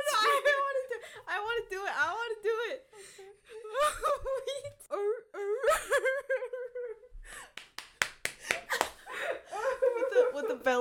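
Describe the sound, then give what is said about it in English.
After a stretch of high, wailing laughter, a hand slaps a surface several times in a quick, uneven burst of sharp smacks, with laughing voices continuing over them. “slaps.”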